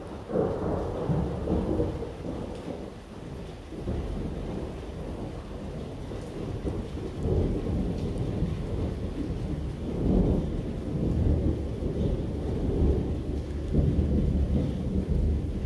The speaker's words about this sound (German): Hier ist es gerade sehr, sehr hell gewesen, weil ein Blitz eingeschlagen ist irgendwo.